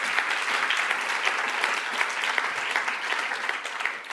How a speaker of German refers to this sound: Ich glaube, der Gott hat einen Applaus verdient, oder? Halleluja!